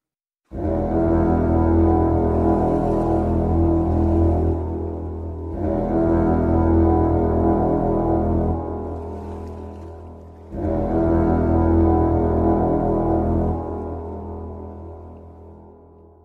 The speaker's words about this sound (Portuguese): Afinal de contas, quando tem vitória, tem Galahorn, né? Porra, então vamos lá, então. Puxa essa corneta estrondante aí que o bonde do Vaicudo chegou, meu irmão.